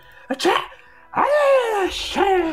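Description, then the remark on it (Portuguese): A person lets out a loud, exaggerated sneeze, a sharp burst followed by two long, drawn-out voiced wails that trail downward in pitch. “Véi, se fosse eu, nossa, as pessoas iam achar que era o demônio na hora, velho. Né, velho? Eu espirro.”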